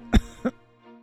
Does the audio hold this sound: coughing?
yes